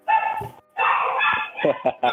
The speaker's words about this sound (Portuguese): Teus demôniozinhos aí estão latindo. É que meu irmão acabou de chegar, eles estão avisando.